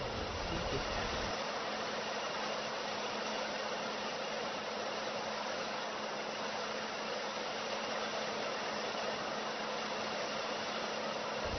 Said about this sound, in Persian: لطفا این سشوار رو برق بزنیم خب ببینید من الان اینو حرارت میدم این حرارت سشوار نه برای گوشی شما ضرر داره نه هیچ مشکل برای گوشی به وجود میاره